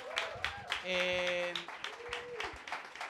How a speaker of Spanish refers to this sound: Bien, aplausos también.